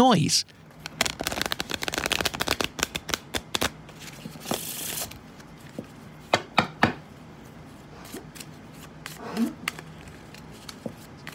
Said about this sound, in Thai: Do you recognize the sound? Do you know what sound this is? That's right, someone is shuffling cards. Someone is shuffling cards.